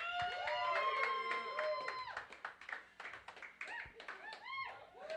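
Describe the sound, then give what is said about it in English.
A crowd at a beat battle cheers and claps loudly for several seconds in support of a producer, with sharp scattered hand claps under a wash of high whoops and whistles that rise and fall throughout. “If you feel like … won this battle, make some fucking noise.”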